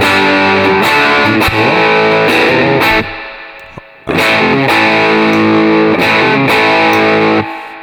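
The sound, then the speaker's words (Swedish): Heavily distorted electric guitar played through a distortion pedal, with all controls set at 12 o'clock and the Jeff Beck mod switched off (original mode), plays loud, thick chords with punchy rhythmic strums, stopping briefly midway before a second similar phrase; no one speaks. “Och det, uh, Jeff Beck-modden är av. Ja, nu är den i originalläget.”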